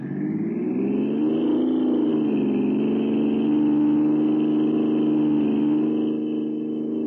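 A car engine hums loudly and steadily as the vehicle drives, its pitch rising briefly as it revs early on, then settling into a constant drone with no voices.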